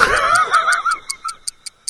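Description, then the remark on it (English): A clock ticks in a quick, steady rhythm of crisp, high clicks, about five per second. Someone's laughter overlaps the start and fades, leaving the ticking alone. “Why am I saying look when it's a ticking we can hear?”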